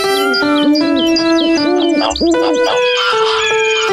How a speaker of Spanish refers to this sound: Los pájaros hacían cada vez más y más ruido. No podía escuchar el piano.